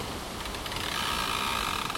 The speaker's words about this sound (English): Listen to that. It's two trees rubbing together in the wind here.